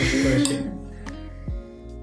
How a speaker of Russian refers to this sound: Жаль, что этот подкаст исключительно звуки, вы этого не видите, поэтому мы просто чокаемся с коллегами коллегами. Это как на корпоративе.